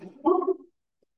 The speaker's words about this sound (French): Ben, je suis désolée, vous avez entendu la chienne qui s'est mise en mode... Euh, chien de garde, elle m'a fait peur, j'ai fait une petite pause